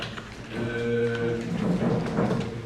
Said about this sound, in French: D'accord, applaudissez pour vous-même. Merci, merci, merci.